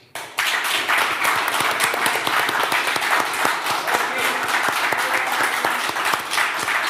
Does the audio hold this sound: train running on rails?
no